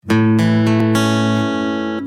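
Opening notes of a country song: about four bright, sustained instrumental notes in quick succession, ringing together and holding steady and loud before fading slightly, with no voices.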